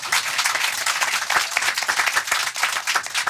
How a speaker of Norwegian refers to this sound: Ja, stor applaus.